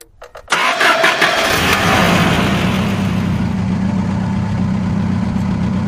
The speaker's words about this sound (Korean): 거대한 엔진과 부품들이 얽히며 부딪히는 소음이 날카롭게 귓속으로 파고든다. 드디어 출발이다.